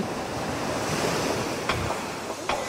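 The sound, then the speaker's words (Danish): Steady surf washes onto the shore at Vossenæs Pynt on a summer day, a broad continuous rush with a couple of brief splashes standing out near the end, mixed with light wind noise and no voices. “Så vi takker af fra en øh, dejlig sommerdag ved Vosnes Pønt ved havet.”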